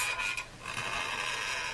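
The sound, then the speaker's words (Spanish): An old mattress creaks and squeaks in a steady, scratchy stretch, with a thin high whine running through the noisy grinding, fairly quiet, with no voices. “Pues a veces los colchones viejos, ¿no? Los colchones. Este, estamos, estamos hablando de un colchón.”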